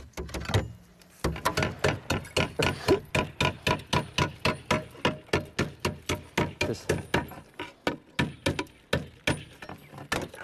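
A hammer taps steadily at slate as a roofer shapes slate plates to size on a slater's trimming stake for a steep roof, in 8 °C and drizzle, with a quick, even rhythm of sharp clicks, dozens of strikes in a row after a brief pause at the start.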